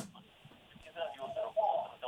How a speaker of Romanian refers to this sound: Alo? Da, te ascult. Să închizi radio te rog frumos, să nu se audă cu ecou.